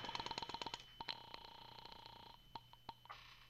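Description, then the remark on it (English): A telephone being dialed to call the landlady at Carlton Apartments: bursts of quick, crisp mechanical clicks, then a few more spaced clicks over a faint steady hum, with no one talking. “I'll phone the landlady.”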